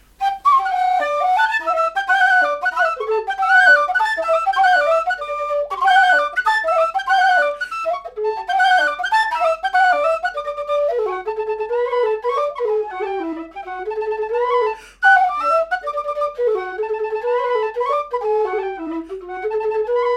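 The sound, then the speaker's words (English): A Chieftain low whistle and a small wooden D whistle play a flowing old air together, the higher whistle weaving above the deeper one in steady, clear phrasing with no voices. “So here's me on low whistle and uh, chieftain low whistle, and then a woody uh, little D whistle to accompany it.”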